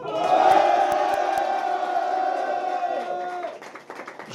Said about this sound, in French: Bonjour à tous, le Hard Rock Café Paris pour la 500e du podcast Jean Actu. Bienvenue à tous en public, donc refaites du bruit.